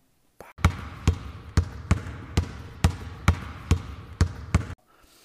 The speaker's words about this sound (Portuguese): Quando acabou o treino, e aí ele foi se preparar para ir para a sauna, ele escutou a bola batendo no chão.